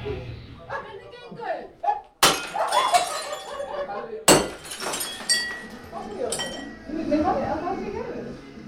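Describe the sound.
Glass smashes twice in loud, sharp crashes, each followed by a glittering spray of shards, while voices talk and murmur underneath.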